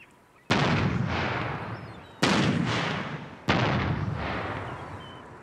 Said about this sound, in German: Während die Leinen ausgebracht werden, feuert die Besatzung in ein, zwei Minuten Abständen eine auf dem Boot montierte akustische Kanone ab, um die Vögel zu vertreiben.